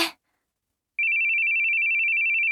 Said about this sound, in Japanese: 噂をすれば、本人から電話がかかってきました。